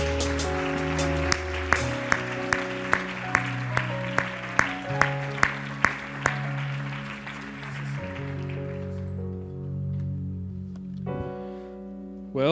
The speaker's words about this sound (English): Praise the Lord, everybody. You glad to be in the house of the Lord tonight? Amen. Amen. Why don't we give the Lord another hand clap of praise?